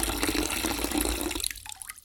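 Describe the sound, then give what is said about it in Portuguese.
Water splashes and gurgles as it's poured into a mug, the stream rushing steadily before the ringing pitch rises while the cup fills, with no voices. “O príncipe, mais que depressa, deu-lhe uma caneca cheia.”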